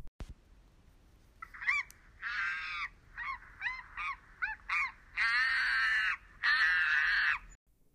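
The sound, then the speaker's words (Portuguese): A monkey at the top of a tall tree screeches, first in a quick series of short, harsh cries, then in two long, loud, drawn-out shrieks, with no other voices. “Ele se balançou até o alto da árvore e começou a guinchar.”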